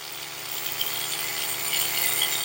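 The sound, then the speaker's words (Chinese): A steady electric toothbrush buzz runs throughout as someone brushes their teeth in the morning, a bright, hissy whir with faint scrubbing texture and a low mechanical hum underneath, holding fairly even loudness with no speech. “如果真的要说开始的话，可能是从闹钟开始，但主要是电动牙刷声，因为会闭着眼睛假装睡眠，然后在那边刷牙，这是电动牙刷声音。”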